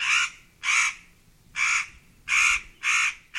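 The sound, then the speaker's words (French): A crow caws six times in harsh, raspy bursts, loud, loosely paired with short pauses between them, over a quiet background with no talking. “le corbeau 1/4 : Un oiseau noir pourtant si bri”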